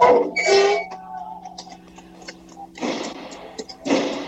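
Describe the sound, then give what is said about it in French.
Bursts of loud metallic banging and clattering as prison inmates pound on their doors and bars come in irregular waves, with faint shouting mixed in and a reverberant quality. “Ils tapent dans leur port, dans leur barreau, tout, ça crie, ça dit que c'est l'appel à bloquer demain.”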